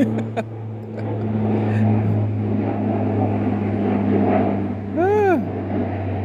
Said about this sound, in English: So, I got another plane flying over. It's not as loud, but now it is.